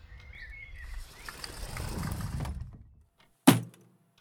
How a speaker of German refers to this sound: Was war denn das jetzt schon wieder? War das eine Dachziegel?